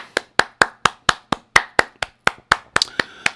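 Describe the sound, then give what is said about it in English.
Steady hand clapping, about fourteen sharp, crisp claps at an even, fairly quick pace, with the last few coming slightly faster. No voices, just the claps. “I gotta applaud y'all.”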